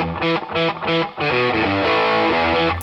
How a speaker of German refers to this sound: Und fertig ist der … Gitarrensound.